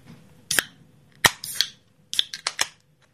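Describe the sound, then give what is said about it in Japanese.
Drink cans cracked open one after another for a toast: several sharp pops, each trailing a brief fizzing hiss, in an irregular run of about six snaps with no talking. “じゃあとりあえず乾杯しましょうかはいこパシュッとパシュッと取れますはい”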